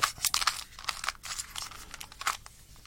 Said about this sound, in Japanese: 一番のいい買い物はこのキューブですね。これはもう本当に毎日遊んでる。これもいい音するじゃない。これいい音しますよね。これ多分ね、3×3 のキューブよりいい音する。